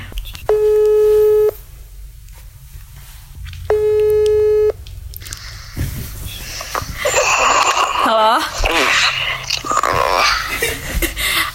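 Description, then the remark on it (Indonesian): Two steady electronic phone ringback tones, each about a second long with a pause between, followed by a burst of muffled, noisy background sound as a call to a former partner connects. “Oke, okay, aku telepon mantan ya.”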